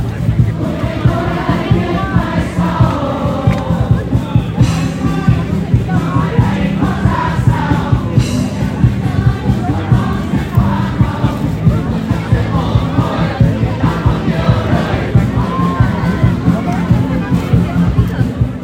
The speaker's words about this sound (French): De jeunes groupes de pop balancent des tubes locaux repris par la foule en canon,